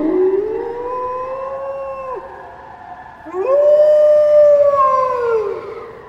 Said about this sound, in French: Puis ce fut un hurlement dans la montagne.